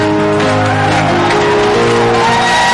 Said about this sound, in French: Est-ce que tu peux acclamer le Seigneur pour ces cris de joie